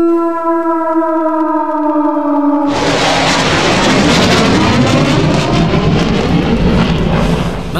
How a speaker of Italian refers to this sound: Mamma mia, questo jet che passa ogni tanto qua da sopra la testa nostra nello studio.